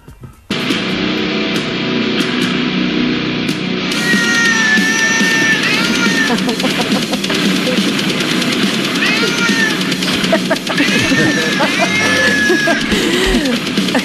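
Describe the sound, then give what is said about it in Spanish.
A stray cat, adopted by a product director at a California record label, yowls and screeches in repeated rising and falling wails over loud, dense death metal music played by a band behind it, continuous from start to finish. “El que chilla es el gato y parecen los monos de Senegal en la rueda de prensa de Sánchez.”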